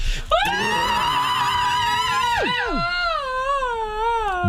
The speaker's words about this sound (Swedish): Vi kommer avsluta detta avsnitt, Doom-avsnittet, med ett hedligt gammalt glatt och käckt power metal-skrik.